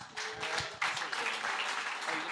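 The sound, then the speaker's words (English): An audience bursts into steady applause as a Riskified business development executive is introduced, a dense wash of many hands clapping at once, sustained and fairly loud from start to finish with no voices standing out. “A round of applause, guys.”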